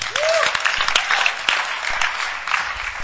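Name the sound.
audience clapping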